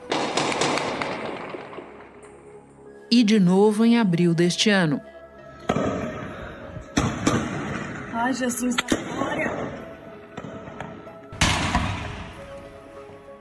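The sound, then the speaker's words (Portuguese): Several sharp gunshots crack out at irregular intervals, loud and echoing, with a burst of rapid shots near the end, while people talk and exclaim in between, during an attack on three banks in the town of Mococa. “Olha o barulho de tiro.”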